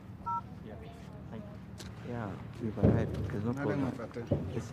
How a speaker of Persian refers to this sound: در حال تماس گرفتن ولی کسی جواب نمیده